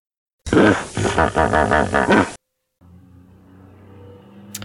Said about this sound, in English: Take your ugly car away. I am in the middle of recording. It's way more important than your need to drive around town.